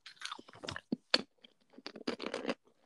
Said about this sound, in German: Hat man das eigentlich? Was? Hört man das ja, eigentlich, wie ich kaue?